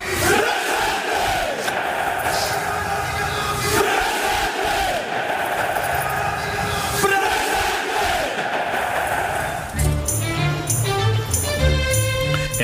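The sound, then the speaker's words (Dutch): A large group of young people chants "presente" and shouts together in loud, rhythmic bursts, echoing like a rally, all with right arms outstretched in the Roman salute; after about ten seconds, music with steady tones takes over. “Nou, je hoorde dus een, een, een groep jongeren presente scanderen.”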